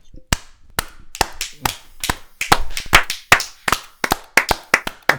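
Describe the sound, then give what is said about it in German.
Sharp hand claps, loose and uneven at first, then picking up into a quicker, steadier run of about twenty crisp smacks in all. No talking over them. “Ja, da klatschen wir nochmal.”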